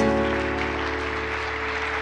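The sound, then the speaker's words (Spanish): An audience applauds Jesus after a prayer, a steady, dense wash of clapping from many hands over a sustained musical tone, with no speech over it. “¿Habrá alguien que le pueda dar un aplauso a Jesús?”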